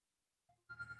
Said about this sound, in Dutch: Oh, oh. mijn telefoon gaat. Is dat erg? Nou, u bent de eerste die het overkomt, maar eh, het is niet anders.